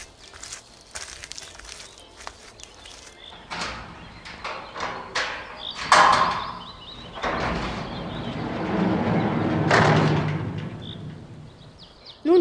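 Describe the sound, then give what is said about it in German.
A garage door rattles and rolls open with a long, rumbling scrape that swells and fades, preceded by scattered clicks and knocks from the mechanism. Fairly loud, with no voices. “während ich das Auto aus der Garage hole, magst du da schon runterlaufen und das Tor aufmachen?”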